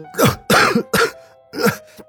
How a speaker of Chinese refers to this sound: 却被没来得及吞下的水呛的是一阵猛烈的咳嗽。